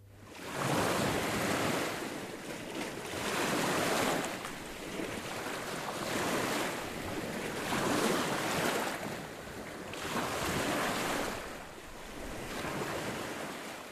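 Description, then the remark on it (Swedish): Waves break on a beach on Lesbos in November in steady, rolling surges roughly every two seconds, a broad wash of surf, with wind rumbling across the microphone and no voices. “Vi parkerar hyrbilen vid Strandvägen och börjar springa emot en gummibåt som är på väg in till stranden.”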